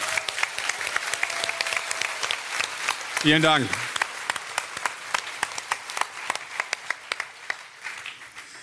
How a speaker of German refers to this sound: aber ich finde auch … darf noch mal einen richtig großen Applaus bekommen.